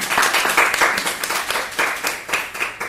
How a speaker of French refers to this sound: Bah, je voudrais vous remercier d'abord, je pense qu'on peut les applaudir pour cette première partie.